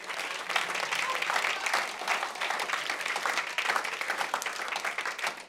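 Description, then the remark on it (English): An audience breaks into sustained applause, many hands clapping in a dense, steady patter that holds at an even loudness for several seconds. “You're not clapping because you are jealous.”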